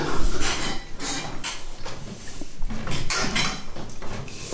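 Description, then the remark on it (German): A tomcat licks its bowls clean, the dish clinking and scraping against the floor in a steady run of short, irregular knocks, with no talking. “Genau, mach die Schüsseln sauber.”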